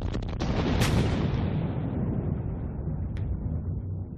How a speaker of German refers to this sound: Plötzlich ein Knall, ein Gewitter, ein Donner.